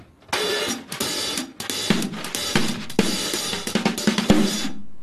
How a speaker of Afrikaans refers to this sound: So hy het net die helfte van sy drumkit hier, maar daar's 'n snare en 'n hi-hat en hulle klink so.